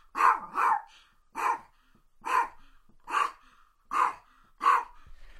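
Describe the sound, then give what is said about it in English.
A dog named Paco barks seven times in a steady, evenly spaced series, each bark short and fairly loud, with brief quiet gaps between them and no talking. “And let's see if this year we can get Paco to bark for us.”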